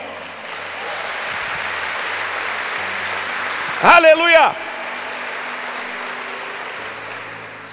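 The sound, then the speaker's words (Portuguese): An audience claps in steady, continuous applause that fills the whole stretch, a dense wash of hand claps, while one voice briefly calls out over it partway through. “Pode aplaudir.”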